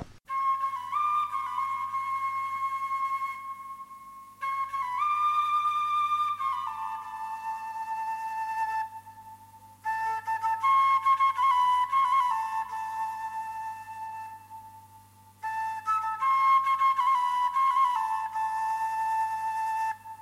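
Instrumental Chilote folk dance music, the dance El Pavo, structurally a cueca: a bright, sustained melody played in phrases separated by brief pauses, steady and fairly loud, with no singing or talking.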